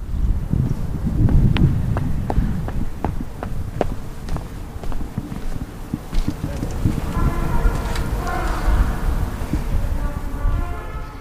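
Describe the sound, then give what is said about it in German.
Wind buffets the microphone outdoors in Bremen, Germany, in a steady low rumble, with sharp footstep-like taps throughout and faint sustained tones from a trumpeter playing drifting in during the later seconds. “So, jetzt habe ich eine kleine windgeschützte und halb trompetengeschützte Ecke gefunden ich weiß nicht, wie stark, stark man die Trompete im Hintergrund hört in der Aufnahme.”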